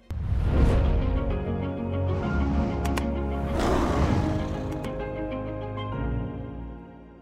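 A lion roars loudly, two deep, rumbling roars in succession that swell and fade into a low, sustained growl, with no voices present.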